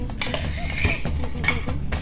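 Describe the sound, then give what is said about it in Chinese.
Crushed ice is added to a cocktail glass after rum while a cocktail is being made, making a steady run of bright clinks and rattles with a few sharper chinks standing out over about two seconds, and no voices. “好，好，这个时候加入碎冰块，”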